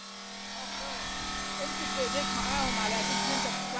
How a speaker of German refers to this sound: Die Kreissäge versenkt ihre Zähne in der Marmorplatte.